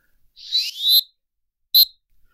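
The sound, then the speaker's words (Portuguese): A referee's whistle blows loudly as a final whistle: a long, wavering shrill blast, then one short sharp toot after a brief pause, with no voices. “estamos a chegar aqui ao, ao momento do, do apito final então, uh, do nosso programa, com certeza.”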